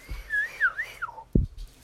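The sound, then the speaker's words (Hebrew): A person whistles a short, wavering tune of rising and falling notes for about a second, ending on a lower slide, followed by a brief low thump. No one speaks. “את השריקה המיוחדת שלהם.”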